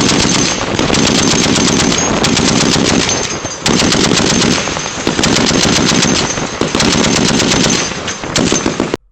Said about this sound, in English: Like, for example, the sweet, sweet sound of a machine gun.